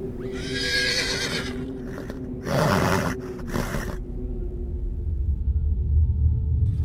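A very large white horse rears and lets out a loud, shrill, frightening neigh amid a swirling dust storm, followed by a few harsh snorting bursts, then a low rumbling that carries on to the end. No one speaks.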